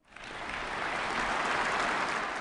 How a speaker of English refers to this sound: Rousing his audience to applaud 53 times